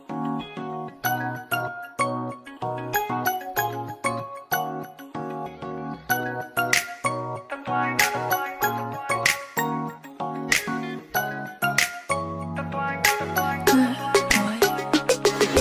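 An instrumental pop song intro: a bright, bell-like plucked melody bounces over a steady bass pulse in a regular rhythm, growing busier and denser with sparkling high hits near the end.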